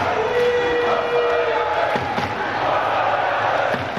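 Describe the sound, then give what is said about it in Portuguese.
A dense crowd of União de Leiria football fans chants together in the fan zone at Gate 10 of the Estádio Municipal Dr. Magalhães Pessoa in Leiria, a loud, continuous roar of voices with a few dull thumps breaking through the din. “E tudo começa na Porta 10, na Fan Zone.”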